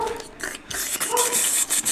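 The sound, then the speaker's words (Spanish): A dog whimpers and barks, high-pitched whines and yips running almost continuously for about two seconds with brief dips in between, fairly loud and with no talking over it. “Para que no escuchen al perro.”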